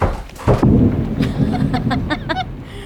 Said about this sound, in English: At night, oh, it won't stop raining. I'm worried about the power going out,